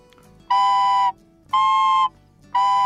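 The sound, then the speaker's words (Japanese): Two recorders, played together by two players to make a chord, sound in three steady, evenly spaced held notes. They are fairly loud, and their pitches are slightly off from each other so the chord wavers a little. “これだけで結構今2本こう同時に吹くことができるんですねこれはねあの ちょっとこれ頭使うんですけどそれで2人でね和音を出すとなんて素敵なんだろうと素朴な音楽の楽しみみたいなのをリコーダーで改めて再認識したんですよね。”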